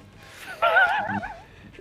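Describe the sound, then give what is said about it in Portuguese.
A GNR police horse in Porto whinnies once, a loud, quavering neigh that starts abruptly, wavers in pitch for under a second, then trails off into quiet. “Cavalo da GNR dá patada em carro no Porto.”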